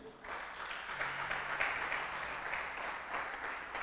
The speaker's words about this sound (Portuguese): Dá um aplauso para você acordar aí.